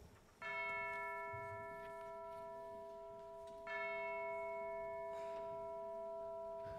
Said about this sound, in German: Da schlug die schwere Glocke der Nachbarkirche Ding Dong.